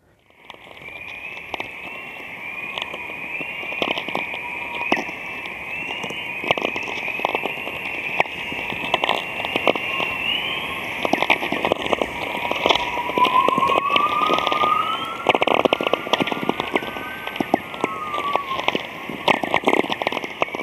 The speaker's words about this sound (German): Interessant an diesem vielfältigen Klang ist, dass man, wenn man geübt ist darin, verschiedene Arten von Nordlichtern unterscheiden kann.